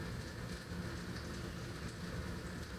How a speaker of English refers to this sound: It sounds like it's raining, but it's just my dishwasher.